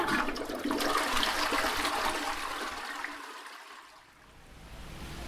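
A toilet flushes, a loud rushing gush of water that swirls down and fades to a softer refill hiss near the end, with no voices.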